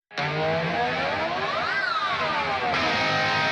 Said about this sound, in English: So that was just slide, and it was kind of a magic thing. I didn't even mean to, mean for it to happen this way, but I slid up on the low strings and then down on the high strings. So I made this weird like wow kind of cat sound.